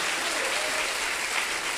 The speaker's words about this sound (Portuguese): Dá glória a Deus e aplaude o teu Senhor bem forte.